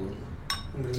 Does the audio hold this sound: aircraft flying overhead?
no